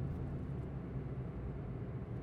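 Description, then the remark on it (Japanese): A steady low engine rumble with road noise, a car being driven home along a road, continuous throughout with no voices. “南の運転する車は自宅に向かって走行していた”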